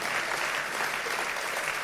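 Steady audience applause fills the whole clip, a dense, even wash of many hands clapping at constant loudness with no voices standing out.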